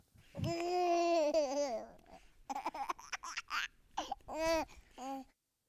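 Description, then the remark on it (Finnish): A baby babbles and calls out in drawn-out, sing-song vocalizations, a long wavering cry followed by several shorter bursts, fairly loud with no other voices. “Sieltä meidän kaveri, kaveri huuteleekin jo.”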